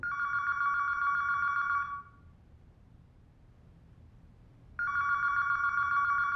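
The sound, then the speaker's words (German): A telephone call to a bookshop outside its opening hours rings twice, a steady electronic trill with a pause of almost three seconds between rings; the second ring is cut off. Faint low background noise, no voices. “Sie rufen leider außerhalb der Öffnungszeiten an. Bitte versuchen Sie es später noch einmal.”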